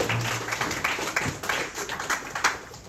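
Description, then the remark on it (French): An audience applauds Monsieur Samy once again, steadily for about three seconds: a dense, even wash of many hands clapping, with scattered sharper claps standing out from the crowd noise. No one speaks over it. “Applaudissez pour Monsieur Samy encore une fois.”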